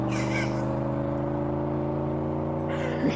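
A car engine runs steadily at a low, droning idle, loud, holding an even rumble for about three seconds with no voices over it.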